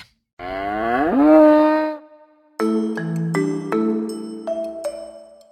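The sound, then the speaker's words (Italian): An ox gives one long, loud moo that swells and bends upward in pitch before fading, followed by a short run of steady, stepped musical tones. No one speaks. “Cosa c'entra il mouse con un bue?”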